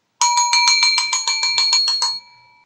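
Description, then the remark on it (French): A small, bright bell rings rapidly, about a dozen quick even strikes over two seconds, then a brief fading ring. It is loud, with no voices. “Ouh, ouh, merci Clochette, mais bon, je pense qu'ils étaient tous au courant, quoi.”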